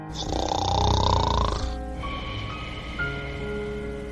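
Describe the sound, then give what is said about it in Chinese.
A single long, rasping snore from a little frog fast asleep rises and swells for about a second and a half, then fades into a quieter, steady tonal hum. No one speaks. “可是，青蛙小弟还在呼呼大睡。”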